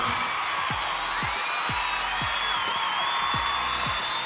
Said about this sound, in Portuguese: um efeito de palmas aqui na edição. Edição, só faz palmas.